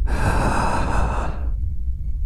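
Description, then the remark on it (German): A man draws a deep, breathy inhale lasting about a second and a half before it cuts off, leaving a low rumble behind. No one speaks. “Er atmet tief ein”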